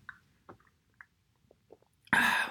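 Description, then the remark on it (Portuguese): A few soft, wet mouth clicks and small sips, ending in a louder, breathy slurp or satisfied exhale after swallowing a drink of coffee without sugar. No talking. “Deixem-me só untar um golinho que isto, esta semana está complicado.”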